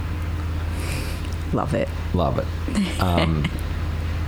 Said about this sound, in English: Um, now they've started Chipper.